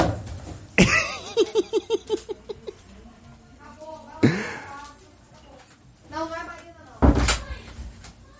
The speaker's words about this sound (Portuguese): Se é o Treta Talks, tá rolando a treta, mãe e filhas aqui, que tá me, me, tá me desviando a atenção.